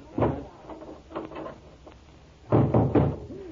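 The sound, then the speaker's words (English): A door thuds shut and is locked with a key, followed by someone locked inside pounding heavy knocks on it in uneven bursts, fairly loud, with a short quiet gap before a final flurry of banging. “Now, quick, Charlie. Shut the door.”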